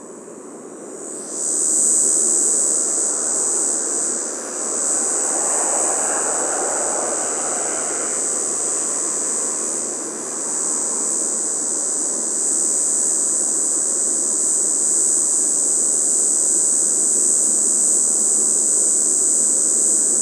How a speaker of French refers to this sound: Écoutez nature, observation sonore, sur la route de Valouise, dans le parc national des Écrins, euh, entre les vignaux, enfin juste au-dessus du, hameau du vignaux, la cigale quadricignée, Tibicina quadricignata.